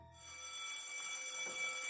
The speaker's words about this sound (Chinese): 放学铃声响起，学生们三三两两离开教室